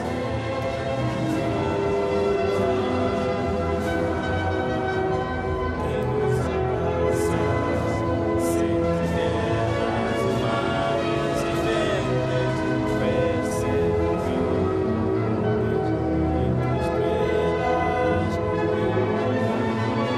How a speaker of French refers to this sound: Allez c'est parti, on écoute le euh, l'hymne national du Cap Vert et on revient vers vous juste après ça.